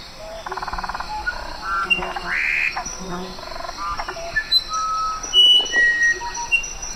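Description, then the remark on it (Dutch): A musician wren sings clear, pure whistled notes at varied pitches, spaced irregularly, over a dense tropical forest backdrop of buzzing insects, croaking frogs and other bird calls. “we zijn nu naar het geluid van de Musician Rain aan het luisteren”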